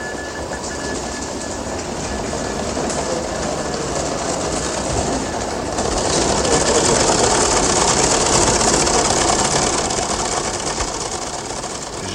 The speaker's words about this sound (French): j'ai approché mon micro d'un téléscripteur je pense que vous avez entendu assez nettement le bruit qu'il faisait.